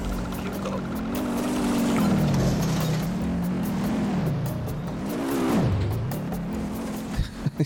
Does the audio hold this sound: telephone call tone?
no